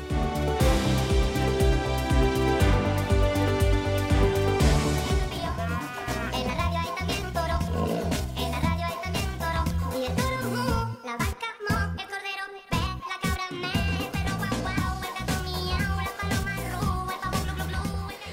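A bouncy children's song about a peeping chick plays loud, with a steady driving beat, bright layered instruments and sung vocals running throughout.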